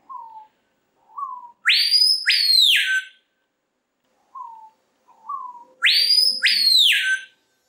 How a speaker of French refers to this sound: Donc le Lipogus, son petit nom, c'est vociférance. Alors on sait pourquoi on l'appelle la voix de l'Amazone, le Lipogus, parce que c'est un oiseau qui chante euh, très fort, d'accord Il a un chant très particulier, piou, quelque chose comme ça.